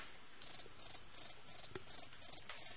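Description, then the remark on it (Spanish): Crickets chirp in a steady, rhythmic pulse, short trills repeating about every third of a second, fairly quiet and unaccompanied, like a lone evening field insect chorus with no voices. “Y en el undécimo, preparados grillos, Paul de Resta.”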